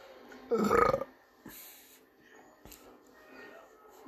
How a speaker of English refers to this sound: I'm not meant to do burp on the podcast.